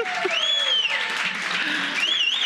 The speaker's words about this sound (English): Is that Sterling Shepard? Yeah. Oh, he got it. Oh! oh, look at the crowd goes crazy.